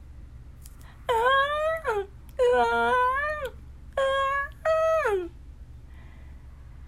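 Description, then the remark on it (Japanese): During a reading of the story 'The Secret of Tears', a voice imitates a boy crying: four loud, drawn-out wailing sobs, each sliding down in pitch, separated by brief pauses, with a quiet hum underneath. “泣いている男の子のそばにヒゲネズミさんが通りかかりましたどうしたのなぜ泣いてるのなんで涙が出るのかわからないの。”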